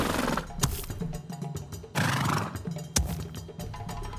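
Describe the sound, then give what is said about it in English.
A buck deer snorts several times, sharp breathy bursts with short pauses between, over a low rumbling background and no talking. “Then he hears it snort behind him.”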